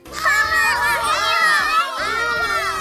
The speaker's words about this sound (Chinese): 七个孩子欢呼起来，他们搂着巨人爸爸，又笑又跳。